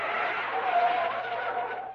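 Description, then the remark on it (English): A car's brakes screech loudly as it skids to a halt, a sustained high-pitched squeal lasting about two seconds before cutting off abruptly. “Just before we give our guests the opportunity to introduce themselves, let's hit the brakes.”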